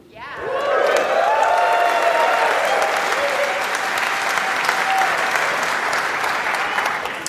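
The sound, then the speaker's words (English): Loud, sustained applause from a large live crowd greeting the mention of the Omni Group, steady clapping with scattered cheers and a few whistles rising above it, lasting several seconds without letting up. “Sounds like you've heard of them.”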